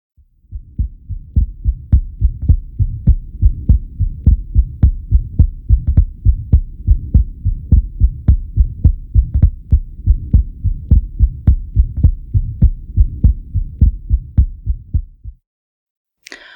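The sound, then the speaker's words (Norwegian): A steady, rapid heartbeat with a Still's murmur, a physiological heart murmur: a soft, low buzzing murmur between the beats, repeating evenly for about fifteen seconds, then stopping abruptly. “Men kanskje først gjenta stillspilllyden, så vi husker hvordan en fysiologisk bilid høres ut.”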